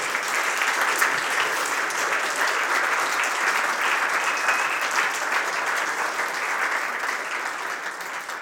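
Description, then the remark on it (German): A church audience claps steadily and warmly for several seconds, a dense, continuous wash of applause that stays fairly even in loudness before easing slightly at the end. “Gebt doch noch Applaus, vielleicht hören Sie das auch.”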